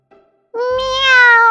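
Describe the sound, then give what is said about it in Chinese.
A cat gives a single drawn-out, gentle meow while rubbing against a person's leg. The meow starts after a brief pause, rises slightly in pitch and holds steady with a clear, tonal quality. No one speaks. “那个黑影反而径直冲到他的脚边，贴着他的腿蹭来蹭去，同时轻轻的叫道”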